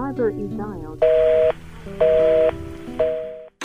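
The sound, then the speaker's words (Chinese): A voice is followed by three even telephone tones, each a steady mid-pitched beep lasting about half a second, separated by equal short gaps in a regular rhythm, as a familiar phone number is dialed. “一次次的鼓起勇气，拨打着那一串熟悉的号码，却害怕等到的是。”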